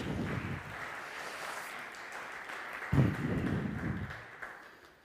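A crowd claps steadily for several seconds to thank a speaker, a dense wash of overlapping hand claps that swells slightly midway and then fades out.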